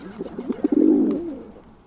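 A pigeon coos: a few soft throaty pulses quicken into a rolling, burbling coo that swells and then trails off, with no other voices around.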